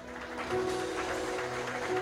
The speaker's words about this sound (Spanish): Dale un aplauso al Señor, aleluya.